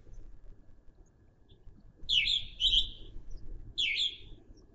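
Birds chirp in short bright bursts at a dacha, with the cold wind now died down, a couple of quick calls close together and then another after a pause, over a low rumble of outdoor background noise.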